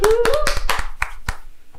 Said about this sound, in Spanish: Un aplauso para ella.